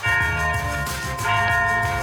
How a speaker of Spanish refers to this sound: Ya le estamos sonando aquí las campanas.